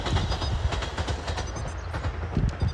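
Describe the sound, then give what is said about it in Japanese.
A train rumbles past, a steady loud roar with rhythmic clacking of wheels over rail joints, filling the whole stretch with no voices, heard outdoors while walking to rice fields. “多分ねこういう今電車が通ってたりとか小鳥の声が鳴いてたりとかしますけど”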